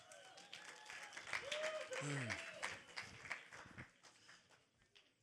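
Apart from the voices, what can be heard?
audience clapping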